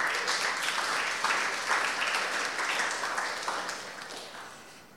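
A crowd applauds steadily, many hands clapping in a dense, crackling wash of sound that holds strong before gradually tapering off toward the end.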